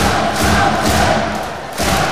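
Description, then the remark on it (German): A large crowd of handball fans cheers and roars in a dense, continuous wall of sound, with low rhythmic thumping underneath. The noise dips briefly near the end, then swells back up. “Die Fans sind es.”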